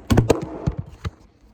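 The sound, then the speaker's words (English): A phone clatters down onto a hard surface: a quick cluster of sharp knocks, then a few lighter bumps as it settles, fairly loud, with no talking. “I knocked my phone down”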